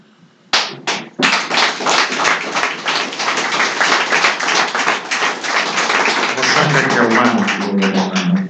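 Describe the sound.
An audience bursts into loud, sustained applause, dense clapping filling the room for several seconds, with a voice starting to speak underneath toward the end.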